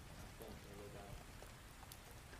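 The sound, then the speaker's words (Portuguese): Steady, soft hiss of rain falling outside, a dense patter of drops continuing throughout, with a faint murmur of voices in the background. “tá chovendo?”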